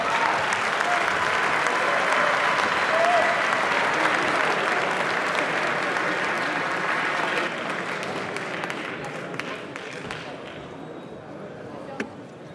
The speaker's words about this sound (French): Applaudissements.